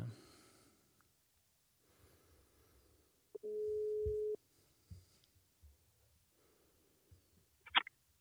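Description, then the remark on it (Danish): A single phone ringing tone sounds once as a call is placed to a woman, a steady, clear hum lasting about a second, surrounded by quiet rustling, soft clicks and a brief sharp beep near the end. “Jeg tænker, at vi måske lige skulle prøve en gang og øh, ringe hende op, og så lige høre, om du kan fortælle os lidt om, hvad det er, det går ud på.”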